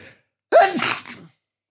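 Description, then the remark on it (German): A single loud sneeze with a sharp intake leading into an explosive burst, then quiet. “Na, Gesundheit.”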